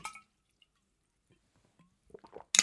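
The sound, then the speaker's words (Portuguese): Someone takes a sip of water, with soft wet swallowing and lip sounds, a quiet pause in between, then a brief clink or bottle noise at the end. “Beber aqui um bocadinho de água.”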